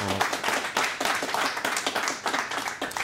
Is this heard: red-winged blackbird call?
no